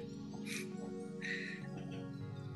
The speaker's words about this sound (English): Sorry, I was like choking on my water, guys.